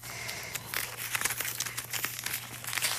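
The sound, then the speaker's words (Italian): Pages of the newspaper La Repubblica rustle and crinkle, a continuous papery crackling with sharp bursts as sheets are handled and turned to page 17, over a faint steady hum. “allora, eccolo qua, lo prendo da pagina 17 della Repubblica e la scrive questa, mm, questa, questo articolo è scritto da Roberto Petrini.”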